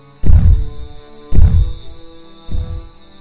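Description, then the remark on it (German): A time machine's noise: three deep, booming throbs, each swelling suddenly and fading, over a steady electrical hum with a faint high whine. No voices. “Wenig später, als der Lärm der Zeitmaschine endlich abgeklungen ist, begleitet Ritchie Brutus zum Gemeinschaftsnest.”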